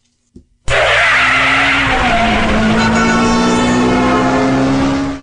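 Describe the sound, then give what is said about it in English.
A car peels away with a loud, sustained tire squeal over a roaring engine as someone drives to an ice cream shop in Oakland, intense, running for about four seconds before cutting off abruptly, with no one speaking. “I'm driving to Fenton's Ice Cream in Oakland for a black and tan”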